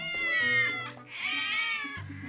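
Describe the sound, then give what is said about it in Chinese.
Several stray campus cats meow loudly in two long, drawn-out cries, high and whiny with a wavering pitch, one right after the other, with several voices seeming to overlap. “突然，猫叫声四起”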